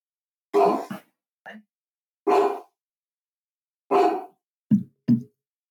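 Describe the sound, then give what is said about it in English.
Dogs at a house bark in a string of six sharp, irregularly spaced woofs, loud, some short and clipped, with silent gaps between and no voices. “hold on, we gotta take a break while our my dogs bark.”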